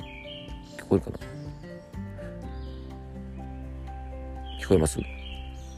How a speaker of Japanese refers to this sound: オープニングトークに引き続きですね、軽井沢の森の中にいるんですが、聞こえますかねなんか、あんまり聞いたことない鳥の声が聞こえるんですよね。